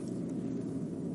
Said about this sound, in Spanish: Como siempre, pues en mi coche. No sé si se puede escuchar el sonido de fondo del coche, pero sí, aquí estoy.